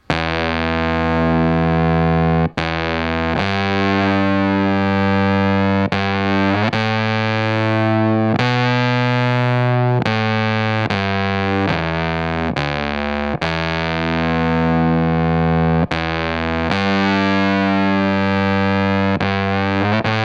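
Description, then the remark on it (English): A fuzzy, distorted electric guitar riff played through a Rush Pepbox fuzz pedal, one of the earliest fuzz pedals, plays alone with no added reverb, sustained notes changing in a steady pattern with brief sharp breaks between phrases, loud. “I’ll discuss the Rush Pepbox , one of the earliest fuzz pedals made”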